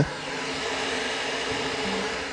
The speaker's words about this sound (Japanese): お湯が結構沸いてきましたねこれ音聞こえます